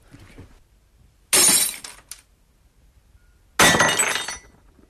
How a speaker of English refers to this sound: Glass coming off the table, yeah, and smashed on the floor.